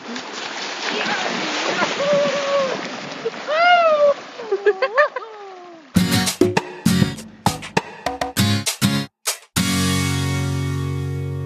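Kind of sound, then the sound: nature, splashing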